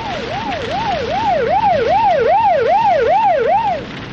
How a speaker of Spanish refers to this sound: No oyó la sirena del coche patrullero, ni el correr de los agentes por la playa hasta llegar a su lado.